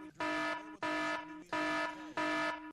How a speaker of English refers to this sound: Okay, now listen. This is important, so you better play the horn.